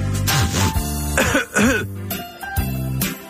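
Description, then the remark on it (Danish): A person coughs and clears their throat repeatedly, harsh raspy bursts, several in quick succession with brief pauses between them. “nu har du altså gået og hostet og hakket hele ugen.”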